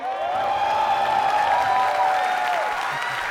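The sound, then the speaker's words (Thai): A crowd at an event in Thailand celebrating the legalization of cannabis claps loudly and steadily, with shouts and cheers rising over the applause to congratulate cannabis supporters. The sound stays full and sustained from start to finish. “งานวันนี้ที่เราจัดขึ้นมาได้ เพราะว่ากัญชาอันล็อกแล้ว เพราะฉะนั้นนะฮะ ขอเสียงแสดงความยินดีให้กับสายเขียวทุกท่านนะฮะ”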